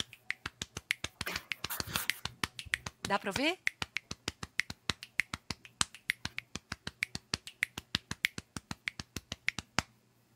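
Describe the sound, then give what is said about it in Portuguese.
Crisp body percussion beats out a driving maracatu baque virado rhythm in fast, steady snaps and slaps, in a sparser, edited arrangement, with a voice briefly speaking near the start. “Um baque virado mesmo, né?”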